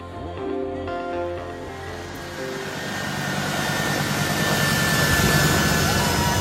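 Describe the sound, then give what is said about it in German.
The jet engines of an airplane taking off at the airport in Kabul, Afghanistan, roar and swell steadily, starting with a humming whine and building into a loud, broad rushing blast without any voices. “Menschen, die sich an die Triebwerke eines startenden Flugzeugs klammern auf dem Flughafen in Kabul.”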